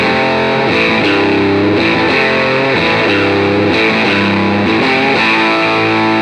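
A small guitar amp cranked to full gain, churning out thick, fuzzy distortion as a few chords change in a loose rhythm; loud, close and continuous with no voices.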